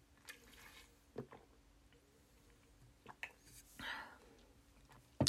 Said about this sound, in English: Water break. Oh my god. I'm taking a water break, everybody.